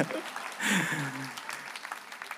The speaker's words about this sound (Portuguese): Vou dar um honrar ao pessoal. Uma salva de palmas para quem tem coragem.